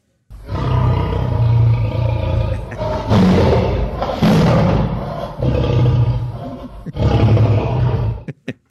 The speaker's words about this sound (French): c'est le lion qui, qui rugit, hein?